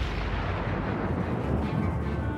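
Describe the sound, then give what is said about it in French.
A loud magical flash effect as a fairy vanishes: a dense, rumbling burst of noise that swells and roars steadily for a couple of seconds, full, with no voices. “La fée disparut dans un éclair”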